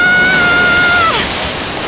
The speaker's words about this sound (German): Oh, hier spritzt das Wasser aber ganz schön.